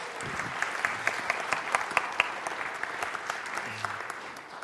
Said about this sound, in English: Let's give them a round of applause for just being willing, right?